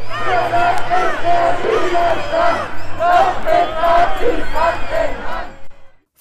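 A large protest crowd boos and chants in loud, overlapping voices, with shrill whistles cutting through the steady roar before it quickly fades out at the end, as a Monday-evening 'Monday walk' protest and a counter-demonstration meet at Neumarkt in Cologne, Germany.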